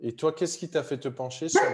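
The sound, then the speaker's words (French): The speaker's own dog barks a few times while a person keeps talking over it, the short yaps partly buried under the steady speech. “Oui, c'est mon chien, oui.”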